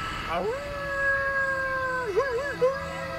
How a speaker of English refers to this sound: Down the street, Mr. Honeycutt let out a melodic howl.